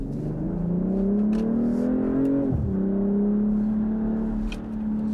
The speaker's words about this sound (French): Elles sont juste ni diesel ni électrique. Elles sont à essence, elles ont des gros moteurs et elles font du bruit. Euh, comme voilà, je peux vous le démontrer.